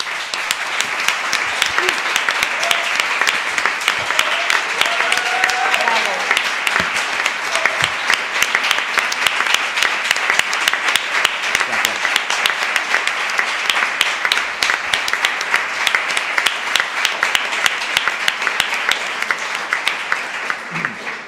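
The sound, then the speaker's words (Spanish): Sustained audience applause, a dense steady wash of many hands clapping at a fairly loud, even level for about twenty seconds, with no talking over it. “Bueno, me ha tocado el, el, papel de mala, el de cortar, aplausos, cortar a gente, cortar cabezas.”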